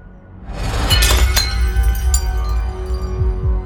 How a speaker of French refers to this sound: Edward lâche subitement le plateau.